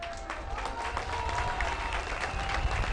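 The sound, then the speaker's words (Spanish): An audience breaks into sustained applause for the outgoing municipal president, a dense steady patter of many hands clapping at an even loudness, with faint voices and cheers mixed underneath. “A ver, párate porque te vamos a dar un aplauso a ti también.”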